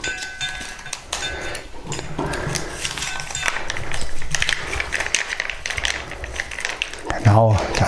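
Cats, including one named Mieze, eating: a steady, busy stream of rapid crunchy clicks and small chewing sounds continues throughout at a moderate level, with a brief tonal sound near the end.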